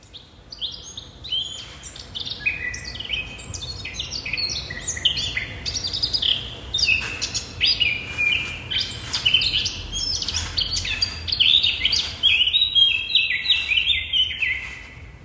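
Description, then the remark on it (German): A Eurasian blackcap sings a continuous, rapid warbling song of bright, varied notes, fairly loud over a faint low background hum, with no one speaking. “Da hört man die Mönchsgasmücke.”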